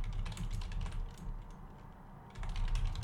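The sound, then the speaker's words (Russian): Rapid clicking of keys on a computer keyboard while someone googles a web framework, in quick irregular bursts with a brief lull in the middle before the typing picks up again. No one speaks. “Был какой-то, короче, фреймворк, сейчас гуглю, от э, ДХХ, от э, Basecamp.”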